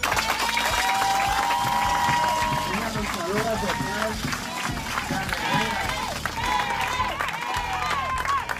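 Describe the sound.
A crowd applauds steadily for several seconds, dense clapping mixed with cheers and shouting voices, loud and sustained from start to finish.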